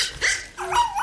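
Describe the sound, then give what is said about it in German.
A miniature schnauzer barks twice in quick succession at a crime scene, with sharp, high-pitched yaps and no talking. “Das ist doch ein Zwergschnauzer und kein Eichhörnchen.”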